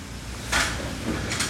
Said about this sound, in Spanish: Como el viento. ahí empezó a ventear.